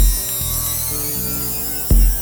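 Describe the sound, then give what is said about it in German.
A steady electric hiss like white noise with a low hum and a high, whistling layer that slowly glides down in pitch as it is swept through the frequencies with lots of reverb, ending in a brief louder low thump. No one speaks. “So, pass mal auf, ich zwisch da mal jetzt dieses Psst, dieses elektrische. Hörst du das?”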